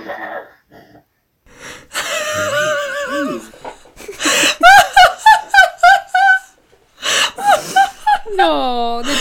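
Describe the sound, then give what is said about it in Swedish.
A child cries in a series of loud, wavering wails and short sobbing bursts, with gasping breaths and brief pauses between them, ending in a long rising-and-falling whine. “Åh, när jag hör det brak- braka loss där i bakgrunden med gråt.”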